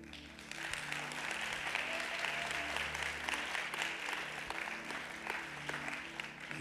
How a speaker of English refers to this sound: You hear them clapping for you because they, they didn't, you have.